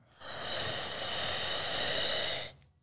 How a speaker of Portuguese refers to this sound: E aí, respirando pela boca, inspirando no abdômen, no diafragma, na costela, no peito três lugares que você pode ampliar a sua respiração.